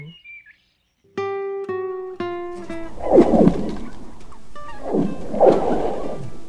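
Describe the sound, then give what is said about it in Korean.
Ice on the frozen Imjin River creaks with eerie, whale-like tonal moans, then lets out two deep, rumbling cracking groans a couple of seconds apart, fairly loud, with no voices. “임진강의 얼음이 삐걱거리기도 하고 갈라지기도 하며 으르렁대며 소리를 만듭니다.”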